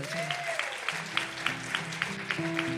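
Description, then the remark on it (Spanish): An audience applauds in a steady, dense wash of clapping with regular rhythmic accents, while sustained keyboard notes hold and shift underneath. “¿Cuántos aplauden”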